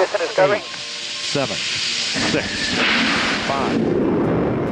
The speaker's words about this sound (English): All three engines up and burning. 2, 1, 0, and liftoff. The final liftoff of Atlantis on the shoulders of the space shuttle.